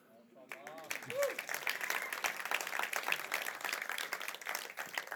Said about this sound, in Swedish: Men tjena vad Jesus kan förvandla liv. Det är nästan värt en applåd.